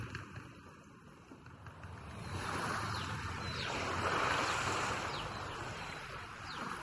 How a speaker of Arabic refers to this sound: صوت الموج بيوشوش بكسل صباح الخير في قرية هايت بكو المتكورة بين جبال شبه جزيرة داتشا